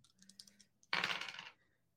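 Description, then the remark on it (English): A few quick clicks are followed by a loud, bright rattle of dice tumbling across a hard surface for about half a second, then silence. The dice are rolled in a game and come up a one, a five and a six. No one speaks. “Okay, a one, a five, and a six.”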